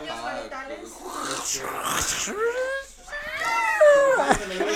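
cats fighting and yowling

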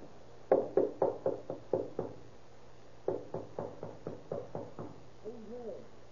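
knocking on a door

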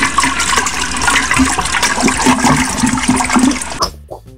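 toilet flushing

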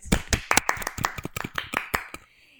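clapping

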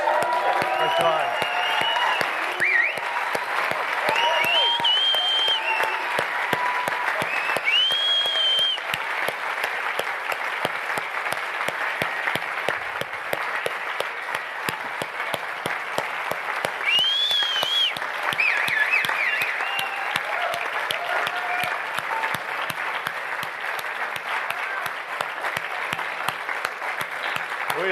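audience applauding and cheering

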